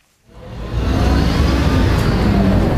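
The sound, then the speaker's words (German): A city bus on line 102 in Offenbach, Germany, rumbles up from silence and settles into a steady, loud, low drone as it drives across the inner city, with no voices. “Einmal quer durch die Innenstadt fährt die Stadtbuslinie 102.”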